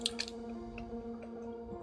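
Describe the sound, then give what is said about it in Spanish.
Wet chewing of juicy pineapple, with two sharper squishy bites at the start and a few softer mouth sounds after, over a steady low background hum. “y ya este, puedes comer tu piña.”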